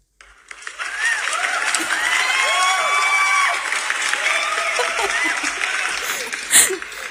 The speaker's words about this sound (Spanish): Ah, ya, hecho, mira, ya, ya encontré el audio de los aplausos. Ah. Mira, te vamos a dar un aplauso para que te animes con la primera categoría.